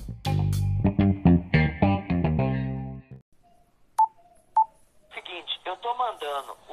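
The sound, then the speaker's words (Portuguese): A short electronic show jingle of loud, bright synthesized chords plays in quick bursts, then two brief high beeps sound before someone starts talking. “Depois da vinheta, solta a vinheta aí”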